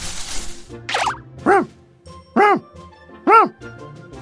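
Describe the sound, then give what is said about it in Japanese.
A dog barks three times, fairly loud, in an even rhythm after a short swishing sound, with nothing else going on around the barks; it is the dog appearing in a picture-book reading of the Momotaro tale. “犬が一匹現れました”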